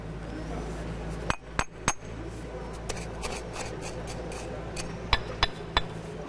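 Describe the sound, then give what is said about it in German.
Sharp, ringing clinks of a hammer as a 19-year-old worker calmly sets paving stones at an outdoor road-construction site, coming in small irregular bursts of two or three strikes over a steady low rumble. “setzt ein paar Meter weiter Dominik Seelenruhig Pflastersteine”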